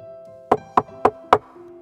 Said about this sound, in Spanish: Ahora está ahí fuera y quiere entrar. Llamaron por segunda vez a la puerta